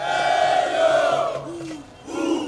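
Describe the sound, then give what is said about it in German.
A large crowd of protesters at mass demonstrations in Sudan against a military coup shouts and chants together in a loud, sustained roar of massed voices that dips briefly, then surges again. “Eine neue Welle von Massendemonstrationen folgte.”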